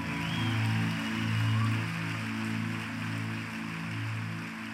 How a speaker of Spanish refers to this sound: Adelante un fuerte aplauso al Rey.